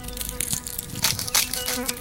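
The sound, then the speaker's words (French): A wasp buzzes steadily as it flies away, its droning hum wavering in pitch and loudness with a few brief rustling flutters, no voices present. “La guêpe est partie plus loin, attirée par d'autres pucerons plus gros.”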